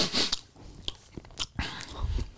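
Close-up wet chewing and smacking from a pet right next to the microphone, a series of irregular crunchy bites and lip smacks with no talking.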